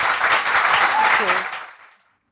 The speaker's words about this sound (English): Round of applause, please.